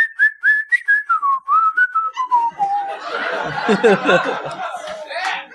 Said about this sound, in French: Je siffle comme un rêve, moi. C'est vrai?